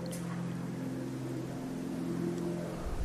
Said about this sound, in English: Instead, you get an airplane.